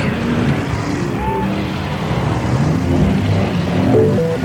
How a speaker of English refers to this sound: Let's build a city. We'll need a lot of people. in traffic.